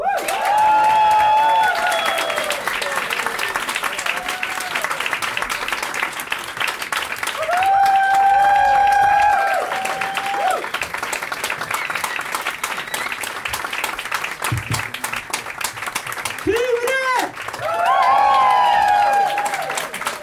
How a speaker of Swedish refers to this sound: Nu har vi kommit fram till avsnitt 100 och nu är det, ge en varm applåd för min morbror